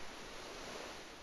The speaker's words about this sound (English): Today we're having a nice, relaxing, calming, nice day at the beach. As you can hear the waves in the background,